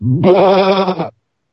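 A single loud sheep bleat, wavering, lasting about a second, preceded by a brief low grunt and followed by silence.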